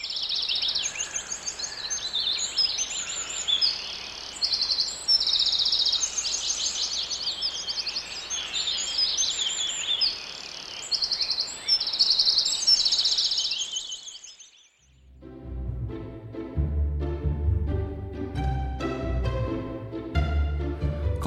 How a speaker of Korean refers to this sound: 이런 맑고 청량한 숲속의 새소리 그냥 듣고 있는 것만 으로 좋으네요. 마음의 휴식을 주는 숲속의 새소리 오늘의 소리로 만나봤습니다.